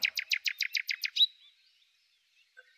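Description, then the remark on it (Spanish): A nightingale perched on a rosebush in front of a window sings a quick, bright run of about eight repeated chirping notes in a steady rhythm, clear and forceful, then falls silent except for a faint chirp near the end. “Allí se puso a cantar su melodía más alegre y con tanta fuerza que muchos en el pueblo pensaron que quien cantaba era el gran dios de los pájaros.”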